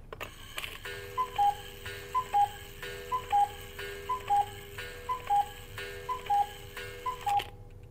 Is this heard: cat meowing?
no